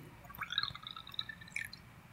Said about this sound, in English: Are you peeing? No, I'm pouring tea.